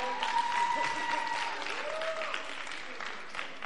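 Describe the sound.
An audience claps steadily in a dense, continuous wash of applause, fairly loud throughout with a slight easing toward the end; a few faint voices and whistle-like tones rise over the clapping.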